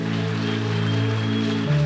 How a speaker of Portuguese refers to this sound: Vamos dar uma salva de palmas ao nosso Deus.